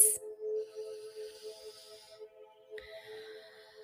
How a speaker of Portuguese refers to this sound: Peço que se recolha num local confortável, onde ninguém vai te atrapalhar comece a sua respiração. Inspire pelo nariz